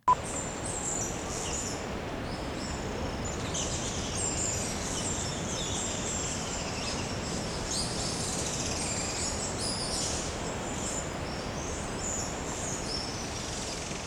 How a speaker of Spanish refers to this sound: que son los picaflores del archipiélago de Juan Fernández, de hecho una especie endémica y que no existe en ningún otro lugar del planeta, y que son muy bonitos porque el macho es completamente rojizo y la hembra blanca con verde, y están en peligro